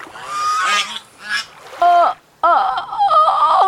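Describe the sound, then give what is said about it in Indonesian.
A swan honks: several loud, brassy goose-like honks ring out in quick irregular bursts, harsh, with brief pauses between calls and a longer honking stretch at the end. “Namun, suaranya tidak keluar. Ia baru ingat kalau ia sudah menjadi seekor angsa sekarang.”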